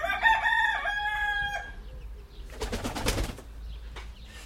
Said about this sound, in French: Il y a les poules qui rentrent à la maison.